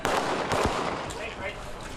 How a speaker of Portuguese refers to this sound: Na cidade, o protesto se concentrou no local onde aconteceu a abordagem da polícia. Durante a manifestação, tiros foram ouvidos.